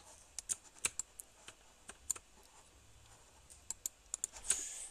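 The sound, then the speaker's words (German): Keys on a computer keyboard click in irregular bursts as someone plays a video game with the keyboard, some quick taps clustered together with brief pauses between, fairly quiet with no talking. “Aber ist gut für mich spiele mit, äh, übrigens mit äh, Tastatur.”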